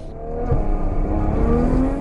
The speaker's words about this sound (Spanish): Vamos cada vez más deprisa por la pista en un vehículo deportivo que alcanza los 100, los 200, los 300 kilómetros por hora. Toma curvas peraltadas a gran velocidad.